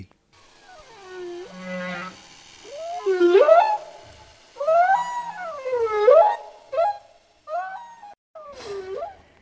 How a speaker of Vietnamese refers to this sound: Được biết, các nhà khoa học nghiên cứu về đại dương đã ghi âm được các âm thanh khi các con cá voi hát cho nhau nghe theo dự án có tên là Oceanic Project. Thế nhưng, rõ ràng đó không phải là những giai điệu nghe thấy trong các buổi hát karaoke.